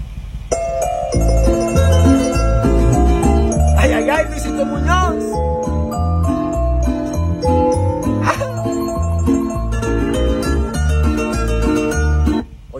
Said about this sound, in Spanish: Y en este momento que me acaba de confirmar un nuevo artista, a ver si ustedes saben cómo se llama y suena esta musiquita, Esto dice así.